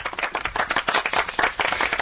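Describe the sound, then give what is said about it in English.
A burst of applause, many hands clapping quickly and steadily, moderately loud, with no voices over it. “Round of applause, please.”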